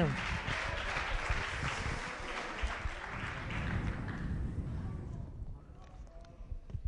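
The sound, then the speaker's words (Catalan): An audience claps loudly and steadily for the nominees for best announcer at the Radiopista awards, a dense wash of applause for several seconds, then it thins out and fades to scattered claps at the end. “Fort aplaudiment, fantàstic.”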